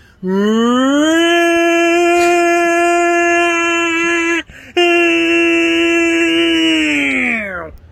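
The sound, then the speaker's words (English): A voice imitates a tornado siren: a loud, steady sustained wail that rises in pitch at the start, breaks briefly for a breath, then resumes and slowly falls away at the end. “Let's do a tornado siren again.”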